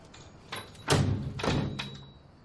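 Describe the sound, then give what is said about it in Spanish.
A door is pushed shut on a man standing at it: a series of clunks and a heavy thud with a low rumble, followed by a final latch click, at moderate volume with no voices. “le cierra la puerta y apaga la luz.”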